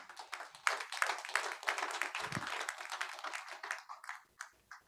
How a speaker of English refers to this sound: Clap for Jesus.